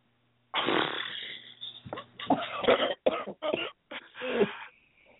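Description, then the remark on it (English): A person who is smoking a cigarette gives a drawn-out, raspy cough followed by a quick series of short, harsh coughs, fairly loud, with no talking. “are you the one coughing? Yeah, I am.”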